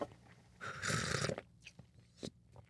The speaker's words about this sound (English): All right, let me have a sip of my tea, my delicious new tea.